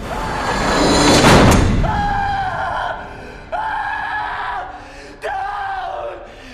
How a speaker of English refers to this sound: the screams fading out as the credits start up